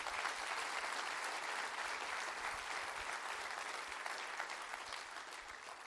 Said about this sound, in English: Clap your hands to that in the name of the Lord.